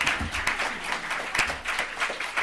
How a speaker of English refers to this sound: You haven't, you have not got time for that round of applause. I want a better round of applause a bit later on.